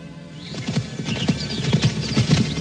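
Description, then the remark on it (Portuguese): The hooves of an imposing black horse, ridden near the Valley of Shechem well ahead of slow centurions, clip-clop in a steady, brisk rhythm, loud, while the horse lets out neighing whinnies over the hoofbeats. No one speaks. “segue avante em sua missão, montado num imponente cavalo negro, bem à frente dos vagarosos centuriões que tentam acompanhar o ritmo veloz de um homem sedento de paixão e cobiça.”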